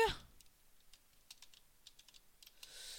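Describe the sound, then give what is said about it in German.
Quick, irregular keystrokes clatter on a computer keyboard, fairly quiet, with a short burst of noise at the start and a brief hiss near the end; no one speaks. “Mann, meine Tastatur ist so scheiße.”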